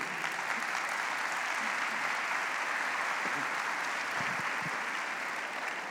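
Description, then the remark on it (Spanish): Sustained applause from a large gathering giving applause to the Lord, a dense steady patter of many hands clapping at once, holding even and loud for the whole stretch with no talking over it. “Tercero, denle ese aplauso al Señor.”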